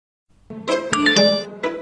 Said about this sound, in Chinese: 谁的短信啊？